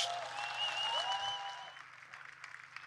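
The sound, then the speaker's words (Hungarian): A crowd applauds steadily, dense clapping that stays loud for the first couple of seconds and then thins slightly as it continues, with a low hum running underneath. “ők most érdemelnek egy hatalmas nagy tapsot. Légy szíves!”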